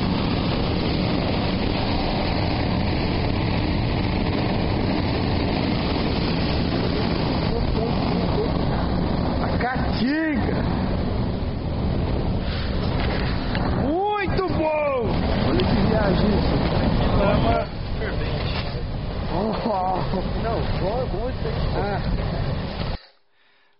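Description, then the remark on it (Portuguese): Volcanic gas vents under high pressure at a volcano in Bolivia in a loud, steady roar and hiss that runs unbroken for the whole stretch, with faint voices briefly audible beneath it. “Olha a pressão que tá saindo o gás aqui.”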